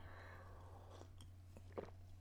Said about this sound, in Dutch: Even een slokje koffie. Dek af om precies te zijn, want ik drink wat minder gewone koffie, omdat ik niet goed is om zoveel cafeïne te drinken.